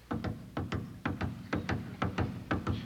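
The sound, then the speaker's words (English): A conductor's steady footsteps as he enters the orchestra pit of an opera house, walking at an even pace, each step landing as a quick double knock of heel and toe, fairly loud, with no voices. “Now I take you to the opera house where you hear the conductor's footsteps when he enters the orchestra pit.”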